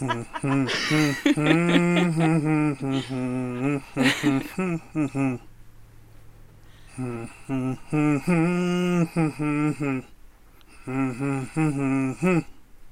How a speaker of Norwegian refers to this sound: Vel, veldig bra nynning, da.